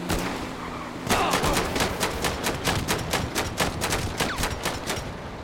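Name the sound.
gunfire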